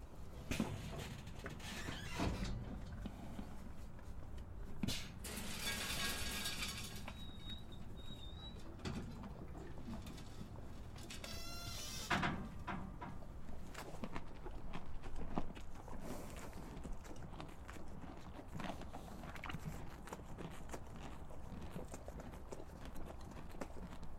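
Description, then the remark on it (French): Steady clip-clop of horse hooves walking on a hard floor through an automatic feeding station, with a few mechanical clanks and a brief whirring noise, plus faint bird cooing in the background; no one speaks. “Quand il n'y a plus à manger, ils sortent. Euh, la porte d'entrée se réouvre en grand et le suivant euh, peut s'installer à la place du précédent pour manger sa ration.”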